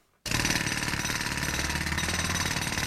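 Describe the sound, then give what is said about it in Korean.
A ground-shaking jackhammer at a construction job starts abruptly after a brief quiet moment and pounds steadily in a loud, rapid, continuous rattle with a low mechanical rumble underneath. No one speaks. “지축을 올리는 기계음. 나른한 일상을 깨기엔 딱이었고요.”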